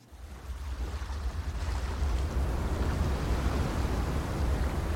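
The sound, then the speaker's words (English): Small waves lap and wash steadily against a ship's hull at sea, with a deep rumbling undertone and breezy wind noise. The sound is continuous and swells slightly louder after the opening moments. “Small waves lapped up against the side of the ship as the crew was beginning to awaken to a rising sun.”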